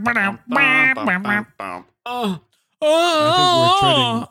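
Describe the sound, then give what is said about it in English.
A voice imitates a muted trumpet with several short, nasal, wobbling bursts, then one longer wavering wah-like tone. It is fairly loud and has no real words. “And it's like, and every time he sticks his dick in, it goes like a trumpet mute.”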